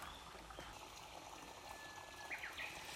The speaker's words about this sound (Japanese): ああこういうことかなるほどねああ川ああ小川のせせらぎこれか